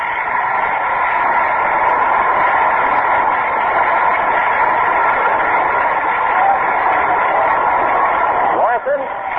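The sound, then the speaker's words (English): A stadium crowd at a New York Yankees baseball game applauds and cheers batter John Lutz as he comes up, in a steady, dense roar that holds for several seconds, heard through a thin, muffled, radio-like band. “And here comes John Lutz, who draws a tremendous hand to the crowd.”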